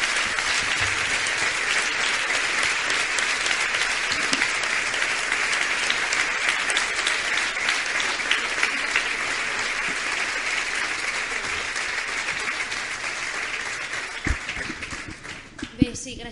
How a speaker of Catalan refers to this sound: Així que un fort aplaudiment, sisplau.